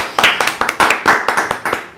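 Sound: hand clapping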